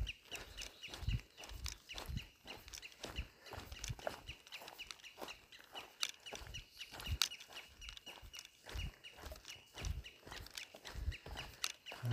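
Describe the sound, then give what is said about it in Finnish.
A bird gives a brief, chirping call against a busy outdoor background, with steady low thumps, like footsteps, running throughout and no one speaking. “Tähän tuo lintu nyt vähän on niin tiltautti, mutta ei ihan kunnolla. Ja sitten sillä on joku erikoissävytys.”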